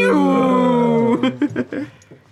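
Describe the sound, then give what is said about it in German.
A person vocally imitates a Star Wars TIE fighter screech: a sustained, harmonic wailing tone for about a second, then breaking into several choppy, fluttering bursts that fade out. Loud. “das, das TIE-Fighter-Geräusch.”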